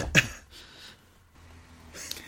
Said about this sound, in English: … having trouble breathing over here.